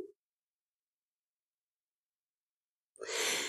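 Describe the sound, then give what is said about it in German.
After a long stretch of silence, an airy breath in through the right nostril, with the left nostril held closed during alternate-nostril breathing, rises near the end, a soft rushing inhalation with no talking. “Links schließen, rechts wieder einatmen.”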